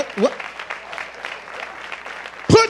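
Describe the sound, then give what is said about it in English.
An audience at a worship service claps steadily, a dense patter of hand clapping that holds an even level throughout, with brief vocal exclamations breaking through at the start and again at the end. “Oh, oh the hand clap”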